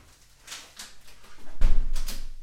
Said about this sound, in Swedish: Jag ska bara stänga fönstret, det, blev lite, det var lite bilar.